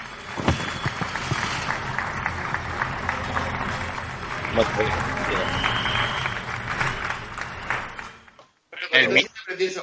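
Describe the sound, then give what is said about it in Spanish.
A canned applause sound effect triggered by pressing a button on the table: dense, steady clapping with crowd noise for about eight seconds, then an abrupt cutoff followed by a few brief bursts of talking. “Coño, que le estás dando al botón de la mesa.”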